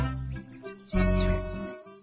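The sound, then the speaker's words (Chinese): A small bird chirps in a quick run of high, twittering notes, with a steady low hum or music underneath, swelling louder around the middle and then easing off. “小鸟看见了，飞去对朋友们说”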